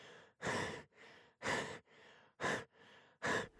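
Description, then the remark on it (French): Heavy, ragged breathing, about four loud gasping breaths alternating with softer ones in a steady rhythm, alone, as a man in shock after being shot catches his breath. “Après avoir repris son souffle, il regarda autour de lui et constata qu'il était de nouveau dans son appartement, au même endroit qu'après être sorti de la galerie.”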